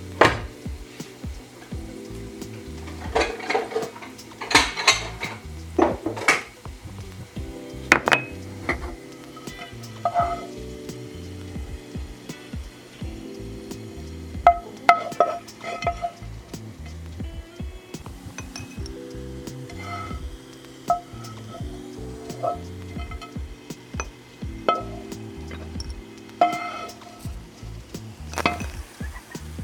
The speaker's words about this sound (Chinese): 好，我的蒜头已经煎到有点微微金黄色，我就把它捞起来。